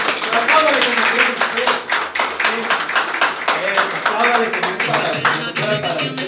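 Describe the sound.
An audience breaks into sustained applause, with dense overlapping claps at a steady loudness for several seconds. A few voices can be heard mixed in under the clapping.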